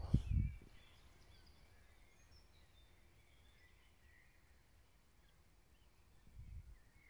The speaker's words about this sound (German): Ich weiß nicht, ob es immer noch auf dem Mikrofon drauf ist. Hier auf der Aufnahme. Ich lasse euch einfach trotzdem mal daran teilhaben, in der Hoffnung, ihr könnt ein bisschen idyllisches Vogelgezwitscher hier ein bisschen mitnehmen.